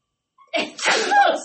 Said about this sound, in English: I'm squeezing these legs because I got to pee, and if I sneeze one more time, she gonna hop it all over myself.